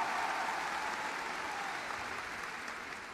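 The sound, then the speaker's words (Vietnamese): A crowd at an Amway event claps steadily in dense, continuous applause, a broad wash of many hands that stays fairly even before easing slightly toward the end. “Nếu vỗ tay vỗ tay lớn hơn đi ạ.”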